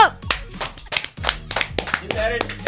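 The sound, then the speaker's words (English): A steady run of sharp, bright hand claps, about eight of them at an even brisk pace, with voices going on underneath the clapping. “Clap it up! Clap it”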